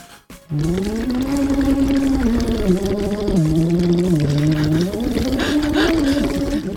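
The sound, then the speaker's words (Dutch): A man does a lip-bubbling vocal warm-up exercise, a steady lip trill with a buzzing, bubbly hum that lasts about six seconds while the pitch dips low and then rises again. No other sounds accompany it. “… gaat bubbelen.”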